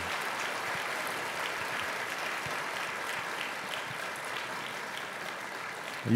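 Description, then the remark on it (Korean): Sustained applause from a large church audience encouraging the high school seniors and next-generation pastors who led the worship singing, a dense, even wash of many hands clapping at steady loudness for about six seconds, with no voices over it. “우리 다음 세대를 위해서 다시 한번 큰 격려의 박수 부탁드립니다.”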